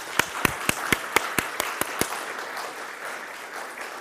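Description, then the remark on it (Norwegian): Applause for three outgoing parish council members standing up at a church service, with a run of about nine sharp, evenly spaced claps standing out for two seconds over a softer wash of clapping that gradually fades out. “Så gir vi dem en god klapp.”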